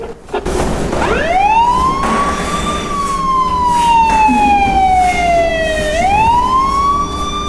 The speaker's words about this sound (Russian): Какие звуки вы услышали? Скорая помощь, Хорошо. Как мы объясним, почему звуки скорой помощи мы слышим в этом доме? Может, потому что кто-то заболел так. Оказывается, ребята, здесь очень долгое время была станция скорой помощи, более 40 лет.